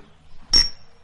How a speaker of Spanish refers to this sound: Brindan y beben un sorbo de vino.